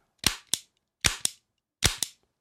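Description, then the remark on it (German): A toy cap gun fires ring caps in three quick double bursts, each pair of sharp, crackling pops loud against otherwise silent surroundings. “Äh, jetzt, das ist, das glaube ich, aber das macht doch nicht Peng wie eine Spielzeugpistole.”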